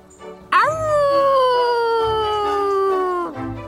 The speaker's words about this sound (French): D'abord, Bougilou leur montre comment crier comme un loup.